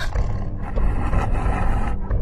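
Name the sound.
tiger roaring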